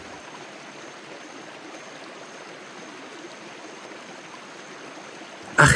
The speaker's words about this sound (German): Er schloss seine Augen und horchte in die Stille, die nur vom steten Plätschern des Flusses unterbrochen wurde.